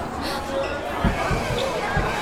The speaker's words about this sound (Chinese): 有一个更明显的三大炮的声音。我当时以为他本来就是那个三大炮扔出去砸那三下出来的声音。我刚巧就是录这期之前，我又。陪朋友去宽窄转了一圈，我发现他是拿手咚咚， 表演式的咚咚， 对。